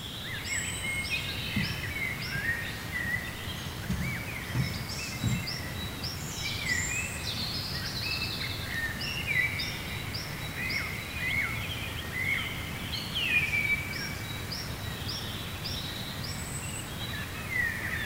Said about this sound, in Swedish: jag satt en natt klockan tre och lyssnade på fågelsång i gungan. Nu skulle jag vilja veta vad kören bestod av för fåglar.